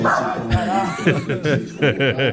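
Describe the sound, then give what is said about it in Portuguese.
A dog barks excitedly in a quick string of short, yappy bursts, fairly loud, with a busy background of voices or laughter mixed in. “O cachorro não tá entendendo nada lá. O é, cachorro ficou puto. O cachorro tá achando que é festa.”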